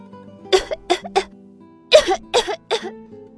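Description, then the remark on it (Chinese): Two rapid fits of harsh coughing from the character Hulu Pig in a children's story, coughing harder, three sharp coughs in each burst, with a short pause between the bursts and no talking. “呼噜猪咳得更厉害了。”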